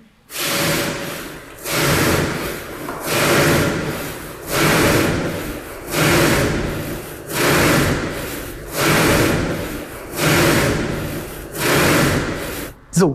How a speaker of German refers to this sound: genau, also das war eine Handsäge. Da wurde Beton quasi handgesägt bevor dann die Maschine einsetzen konnte.